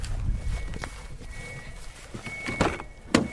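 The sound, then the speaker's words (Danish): An electric car slowly and quietly reverses out, its tires crunching and popping over gravel while a thin, steady high-pitched warning tone hums faintly on and off in the background. “Jeg bakker lige bilen ud.”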